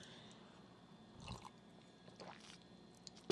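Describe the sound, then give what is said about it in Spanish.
A few soft, wet sipping sounds from someone drinking freshly made hot tea, with brief quiet slurps spread across a near-silent background and a slightly louder clink or gulp at the very end. “Y te pido licencia para darle un trago a este té que me acabo de hacer.”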